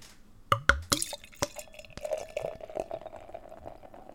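A few sharp clinks and knocks as a bottle of extremely fruity, limited-edition pale ale is opened in Bamberg, then the beer glugs and splashes steadily into a glass, a bubbly trickle running for several seconds with no one talking.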